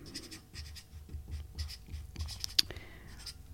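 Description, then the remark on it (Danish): Scratchy pen strokes on paper in short irregular bursts, with a sharper tap near the end, as someone writes a headline with a pen, with no one speaking. “Jo, hvis, øh, hvis jeg skulle gøre det, så vil jeg skrive, øh, som overskrift vil jeg skrive retssikkerhedsgarantier.”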